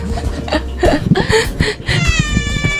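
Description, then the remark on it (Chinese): Tata, an angry pet cat at home, gives a series of loud, strained meows and yowls, harsh and wavering, ending in a drawn-out high-pitched cry with a rising, tonal whine. “我家猫猫生气了，塔塔塔塔都生气了。”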